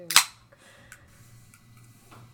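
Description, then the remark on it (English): A single sharp metallic snap and brief hiss as a can of Coke Zero is cracked open, followed by a faint low hum and a few small clicks. “oh, she cracked her Coke Zero. I heard it.”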